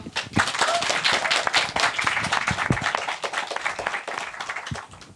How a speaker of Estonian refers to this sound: okei okay,, no aga siis aitäh paneelis osalemise eest, võime käpad kokku panna ja aplausiga saata.